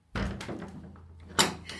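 A white door swings open with a creaking, rattling movement followed by a solid thump as it hits its stop, clear, with no voices.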